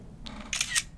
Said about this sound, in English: The second chance is if you take a screenshot of what's on your device right now. It should sound something like this.